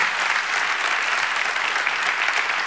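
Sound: audience applauding and cheering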